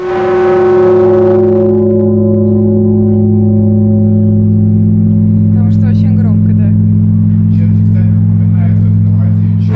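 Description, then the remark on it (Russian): A large church bell used for the blagovest strikes once, loud, its deep humming tone ringing on and slowly fading for several seconds while faint voices murmur in the background. “на большой колокол нужен всегда отдельный человек.”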